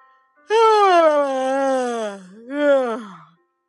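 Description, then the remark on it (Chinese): A voice imitates the big yawns of piglets waking up and getting up: one long, drawn-out yawn sliding slowly downward in pitch, then a shorter second yawn rising and falling, voiced and fairly loud, with no other sounds. “小猪们打着大大的哈欠，爬了起来。”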